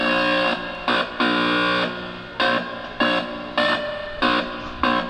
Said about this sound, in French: Il y a des bandes horizontales sur son t-shirt, noir et blanche, Et en s'approchant ou en se reculant d'un capteur électronique, eh ben, il obtient des notes différentes.